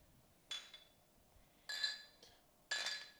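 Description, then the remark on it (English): Three bright glass clinks in a toast, spaced about a second apart, each ringing briefly with a high metallic shimmer, fairly loud against a quiet background with no talking. “Uh, one one thing before we start, let's give it let's give a cheers to the podcast.”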